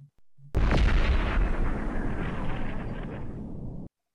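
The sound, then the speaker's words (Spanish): A sudden loud artillery blast erupts after a couple of faint thumps, followed by a long, heavy rumbling roar of cannon fire from a battleship, its cannonballs exploding on a log dam, that slowly fades out. “Cayó en pleno dique, justo en el medio. Dos o tres troncos volaron hechos pedazos y enseguida cayó otra bala.”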